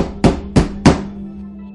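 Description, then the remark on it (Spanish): Three loud, forceful, insistent knocks on a house door in quick succession, evenly spaced, shortly after three in the morning, followed by a low steady hum in the background. “Claro, los golpes eran fuertes, eran insistentes y ella, se despertó.”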